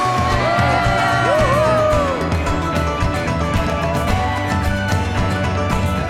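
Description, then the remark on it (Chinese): An audience cheers loudly and steadily for the church and its mission, a dense wash of voices with a few rising and falling whoops near the start, continuing for about six seconds. “给教会一个欢呼，给我们的使命一个欢呼。”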